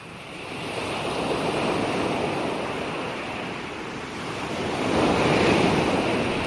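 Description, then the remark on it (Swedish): Waves break and wash continuously onto a sandy shore, a broad steady roar that swells louder toward the end, with wind hiss underneath and no voices. “Sandstrand, skräck, Ja, vågor.”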